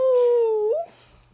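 A dog lets out a single drawn-out whine, a steady tonal moan that holds for most of a second, then bends upward and fades into quiet background noise.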